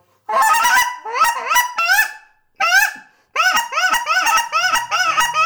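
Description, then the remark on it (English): A Canada goose call blown in rapid, high-pitched honks and clucks, loud, coming in three quick bursts with short pauses between them, imitating the chatter of lesser Canada geese. “Hey, just hit one more note on that Canada Goose call. Just do a lesser for me real quick before we leave.”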